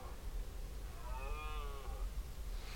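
A red deer stag in rut lets out a single drawn-out, moaning roar, rising out of a low steady outdoor rumble with no voices nearby, at a nearly windless moment.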